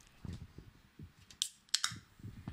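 Chewing of something crunchy: a soft, steady munching rhythm broken by a few sharp, crisp crunches near the middle, with no talking.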